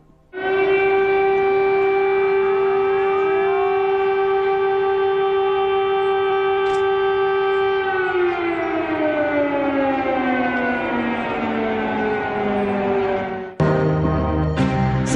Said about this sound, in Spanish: En Kiev se escucharon explosiones y a eso de las 7 de la mañana, a tiempo de Ucrania, se comenzó a escuchar el sonido de las sirenas, las que llamaban a una situación extrema. Estremecieron la capital y que no sonaban desde la Segunda Guerra Mundial.